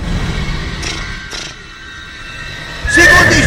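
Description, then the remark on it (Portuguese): A horse whinnies loudly near the end, a bright, wavering neigh rising over a steady rushing background noise, preceded by a couple of brief hissing bursts. “Exatamente dos anticorpos do cavalo.”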